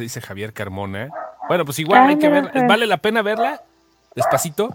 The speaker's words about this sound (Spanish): Perdón por el perro.